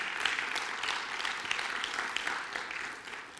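A church audience applauds steadily, a dense wash of many hands clapping together at once, before tapering off at the end.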